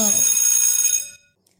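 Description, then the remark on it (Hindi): A school bell rings loudly for about a second, a bright, rapid metallic jangle with dense high ringing tones, then cuts off into silence. “पाठशाला की घंटी बजाओ”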